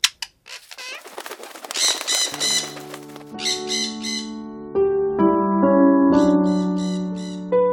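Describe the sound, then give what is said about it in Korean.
A rapid flurry of a parrot's flapping wings, its long unclipped feathers fluttering, with sharp chirps and squawks, soon joined by a sustained tonal music bed that continues under further fluttering. “거칠게 날개짓하는 냉무새의 날개를 자세히 보았다.”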